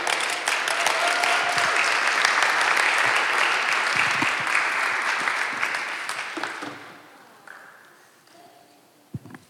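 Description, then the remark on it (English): An audience at a church service claps steadily after a prayer in a dense, loud burst of applause that holds for several seconds, then thins out and fades to a few scattered claps before quiet. “give her a clap.”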